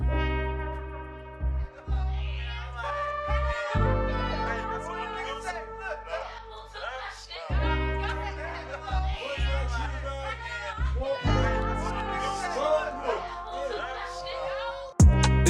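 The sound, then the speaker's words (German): A German rap song, a rapper's debut single, plays loudly and steadily, with a booming bassline, punchy beat and rhythmic rapped vocals riding over the top throughout. “seine erste Single ähm, von der …-EP heißt …, ist ein Representer-Song für das Viertel, in dem er aufgewachsen ist”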